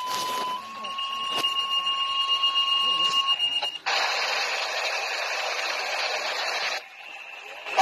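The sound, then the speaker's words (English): Radio dispatch alert tones for a final call broadcast over the airwaves in Bosque County at a graveside service: a steady, high electronic tone holds for about three seconds with a sharp click partway through, then gives way to a loud burst of hissing radio static. “This is the final call that went over airwaves in Bosque County at Sedbury's graveside service.”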